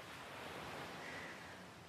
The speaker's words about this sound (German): Spüre, wie der Wind sanft über dein Gesicht streicht und leise die Wellen des Meeres an den Ufern des Hügels rauschen.